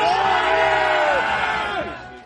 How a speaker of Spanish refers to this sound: Porque, por no saber, ni siquiera sabemos cómo serían los gritos que allá por el año 770, hace ahora unos 1250 años, expelerían los siervos que tomaron las armas en el reino Astur para levantarse contra sus señores